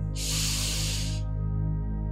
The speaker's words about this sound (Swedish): Nu tar vi ett djupt andetag igen. Vi andas in styrka och tacksamhet.